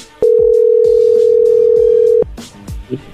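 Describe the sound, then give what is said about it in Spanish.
A loud, steady telephone dial tone hums for about two seconds, then cuts off, followed by a few brief clicks and a faint short beep as a number is dialed again. “A ver, márcale de nuevo.”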